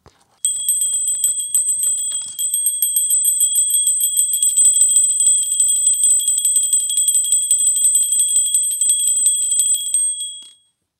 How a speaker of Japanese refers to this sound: 石井スポーツ登山本店で買った鈴小音コグマちゃんベル小っていうんで1710円なんですが